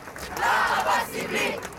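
A crowd of young voices shouting together in unison, loud and sustained in rising and falling bursts, like protest chanting.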